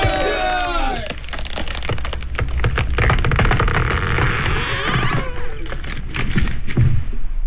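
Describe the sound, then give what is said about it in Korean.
A pine tree, one of six being cut by workers in cold weather for pillars of a new government building, cracks and splinters as it falls: a strained creak at the start gives way to a long run of loud, rapid snaps and crackles that keep on for several seconds. “자 오늘 중으로 관점 청사를 새로 짓는데 기둥으로 쓸 소나무 여섯 그루를 베어야 한다 독질을 멈추지 말고 교대에 가면서 하거라 아이고 아이고 자 여기 소나무 앞으로 넘어간다”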